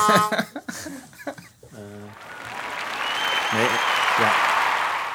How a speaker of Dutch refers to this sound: meer applaus. Ik kan er niet, nog niet zo goed mee werken.